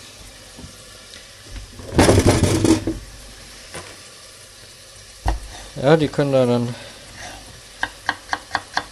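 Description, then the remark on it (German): A knife dices about 400 grams of peeled potatoes into cubes on a cutting board: five quick, evenly spaced chops near the end, after a brief rustling burst and a short bit of speech. “Die schneide ich dann in Würfel.”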